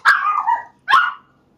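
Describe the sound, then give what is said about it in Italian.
A dog, Milli, barks twice, loud: a longer first bark, a brief pause, then a shorter second one. No one talks over it. “C'è anche il cane, sì.”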